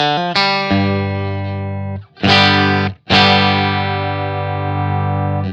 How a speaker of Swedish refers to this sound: Ja, det vill säga kompressor, hur mycket den ska eh, vara med. Så man hör kompressorn lite överdrivet och kanske lite tydligare då.